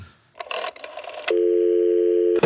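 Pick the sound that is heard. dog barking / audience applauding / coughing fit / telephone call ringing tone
telephone call ringing tone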